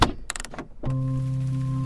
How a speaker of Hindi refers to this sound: और फिर seat belt उतारकर आप गाड़ी से उतरते हैं